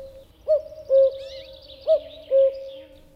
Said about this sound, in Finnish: Ohjelman taustalla kuuluu käki.